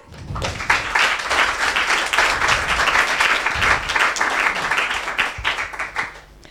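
Sustained applause from an audience after a presentation at a talk event, a dense crackle of many hands clapping at steady volume for several seconds before tapering off at the end, with no talking over it.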